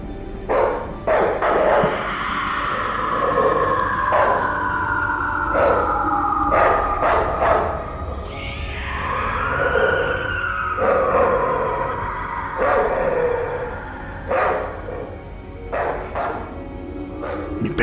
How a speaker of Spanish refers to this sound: ladraba y estaba más desesperada. No la podíamos controlar.